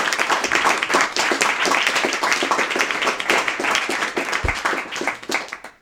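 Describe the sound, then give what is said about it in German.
An audience applauds at the end of a presentation, steadily for about six seconds, a dense crackle of many hands clapping at an even, sustained loudness with no voices standing out. “Erstmal einen Applaus, glaube ich, oder?”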